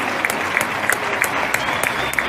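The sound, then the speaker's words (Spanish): Steady applause at 8 o'clock as part of a daily routine, a dense wash of clapping from many people with a few sharper claps standing out at a regular beat, roughly three per second. No one speaks. “Si hay que aplaudir a las 8, se aplaude a las 8.”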